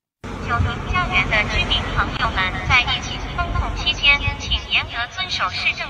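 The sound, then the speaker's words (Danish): A voice booms through drone loudspeakers over a steady, whirring drone hum as drones fly between high-rise residential blocks in Shanghai, China, the continuous, echoing announcement urging residents to follow epidemic prevention rules and not open windows to sing. “På baggrund af protesterne, så kan indbyggere nu høre robothunde eller droner, der flyver rundt mellem højhusene.”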